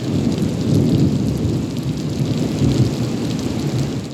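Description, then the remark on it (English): Heavy rain pours down steadily with a deep, rumbling roll of thunder underneath, loud, with no voices present. “Oh, we can make plans all day, every day, and yet somehow they can always get rearranged with the unrelenting rain.”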